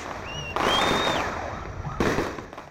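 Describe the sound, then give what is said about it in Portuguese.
Fireworks going off to mark the start of Pelé's funeral procession, as when Santos took the field: high whistling rockets streak upward, then two loud, sharp bursts roughly a second and a half apart, each followed by a crackling, hissing tail. “O foguetório, como quando Santos entrava em campo, marcou o início do cortejo.”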